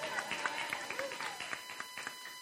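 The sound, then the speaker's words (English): A small group claps for a woman being introduced as the law, in a steady, scattered patter of sharp, bright hand claps that lasts the whole stretch, with a faint voice murmuring underneath. “Yes, you can clap for her.”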